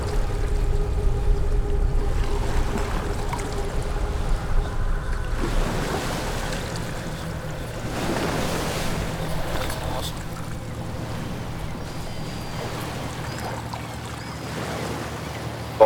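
A boat moving across water, with a steady low engine-like rumble, broad splashing wash, and gusts of wind rising and falling over about sixteen seconds.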